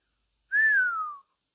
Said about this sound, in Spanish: El jefe de estación lanzó un silbido.